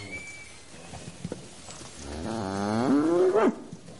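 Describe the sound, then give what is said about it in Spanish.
A cow lets out one long, loud moo lasting about a second and a half. Its low, droning pitch rises slightly and then drops away, with quiet background noise before it and no talking. “Están con las vacas.”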